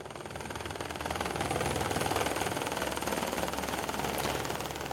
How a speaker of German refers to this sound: wir sind mit dem Helikopter von Lutherbrunn am Morgen um knapp vor dem 7. Uhr losgeflogen. Das Wetter ist gut. Hoffen wir, dass es so bleibt. Ja, wir sind jetzt im Helikopter